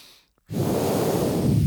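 After a brief silence, a loud, sustained breath rushes in close to the microphone, a steady airy hiss through a resistance breathing trainer that continues without a break to the end.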